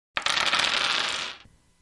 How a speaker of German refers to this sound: Und wie gesagt, mir kribbelt es noch immer unter den Fingernägeln und ich würde am liebsten die Würfel werfen.